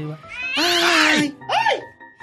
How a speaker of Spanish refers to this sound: ¿y qué trae su pues gatito? que anda, corriendo por todos los lugares